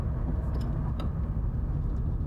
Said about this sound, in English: Holy moly! There's like a whole pileup going on over here. Not like car crash, but just traffic. I'm not going on the highway, so I'm just observing this.